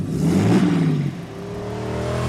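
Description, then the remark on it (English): A heavy tow truck engine revs hard and loud, its pitch climbing then settling into a steady drone as the truck speeds up, with a faint rattling whir underneath. “that tow truck of the oil man speeds up to ram you.”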